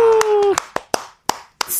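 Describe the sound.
Loud, sharp hand claps, about seven in a loose steady beat, as an audience claps to introduce a rap song performance. A sustained voice-like tone fades out over the first few claps.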